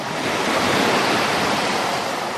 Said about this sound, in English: Well, with our remaining time, let's relax to the sound of the ocean.